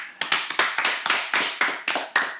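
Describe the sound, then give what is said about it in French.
A brief round of hand clapping, about ten sharp, bright claps at a quick, slightly uneven pace, with no voices over them. “D'ailleurs moi je dis pour l'Allemagne, quelques applaudissements.”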